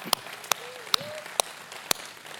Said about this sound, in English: And now for today's message right, happy Mother's Day to all you moms out there, all right, and all the moms watching online. Let's all give a round of applause for all the moms online, too.